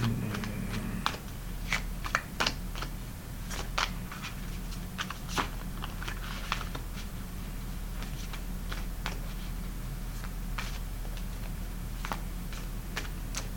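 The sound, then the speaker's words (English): Tarot cards being shuffled, a steady run of crisp, irregular flicks and taps over a low background hum, with no one talking. “Alright, now we're going to shuffle again.”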